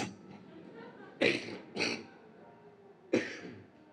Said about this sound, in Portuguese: Desculpa, eu peguei uma, uma tosse há um mês atrás, mas não é Covid, não. Já fiz dois exames de Covid, deu nada, tudo negativo. É um problema aqui que eu peguei quando eu tive Covid o ano passado. Até hoje não foi curado.